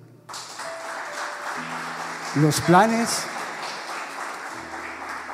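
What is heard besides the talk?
audience applauding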